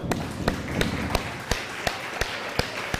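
Fireworks rockets bursting outside in a quick, evenly spaced series of about eight sharp cracks over a steady background hiss with no talking.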